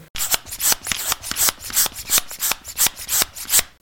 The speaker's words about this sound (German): Luftpumpe